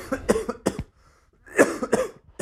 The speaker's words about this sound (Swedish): Jag vill bara be om ursäkt till alla poddlyssnare åt min hosta, men det hade blivit värre gnäll på er om jag inte hade poddat.